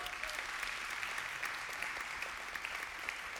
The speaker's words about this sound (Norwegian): Det kan vi gi en god klapp.